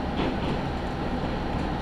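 A local Tenryu Hamanako Railway train (the Takarakuji train), travelling from Kanasashi to Tenryu-Futamata, rumbles along the rails with a steady, dense low-frequency roar and faint mechanical rattling, continuous and fairly loud throughout, with no voices.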